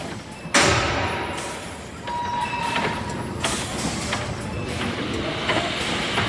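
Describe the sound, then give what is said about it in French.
A rotary milking parlour for cows is switched on, heard from the milking area in the middle of the rotary: a sharp metallic clank, then a steady mechanical rumble that grows louder, with a faint whining hum, scattered thuds and rattles. “Donc là, on est en plein milieu du roto, dans la zone de traite.”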